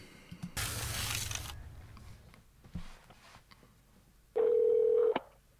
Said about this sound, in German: Das ist jetzt ein Telefonanruf, leider auf Englisch.